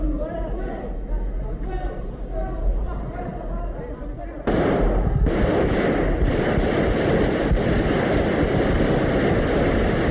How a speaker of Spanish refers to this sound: El teniente coronel lanzó una advertencia a gritos, tras la cual hubo un silencio roto después por los disparos.